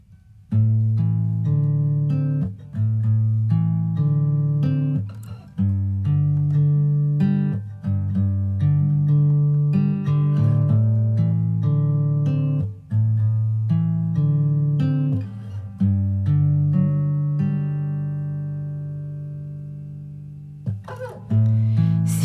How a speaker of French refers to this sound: Et puis aussi, ça sera le single de la semaine. Donc on va l'écouter.